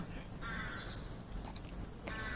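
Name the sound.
crow cawing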